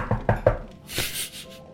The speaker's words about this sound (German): Ich klopfe auf Holz.